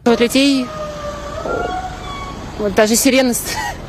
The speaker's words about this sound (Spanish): La mujer se asusta al escuchar una sirena.